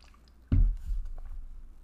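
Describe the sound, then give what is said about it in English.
A person drinks water: after a quiet start, a sudden wet gulp is followed by a few softer swallowing and mouth sounds, with no talking. “I need to have a drink of water.”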